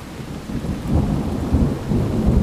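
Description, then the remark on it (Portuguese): A thunderstorm rumbles steadily, deep thunder rolling beneath a constant wash of heavy rain, loud with no voices present. “Por isso, eu te convido agora a parar um pouco, fechar os olhos escutar a tempestade no fundo e tentar imaginar o cenário da cidade em um dia de desastre.”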